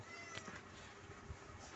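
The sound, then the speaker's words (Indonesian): A pet cat meows insistently in a short burst, its voice rising and wavering over a faint background hiss, with no one talking. “bentar kucing gue berisik”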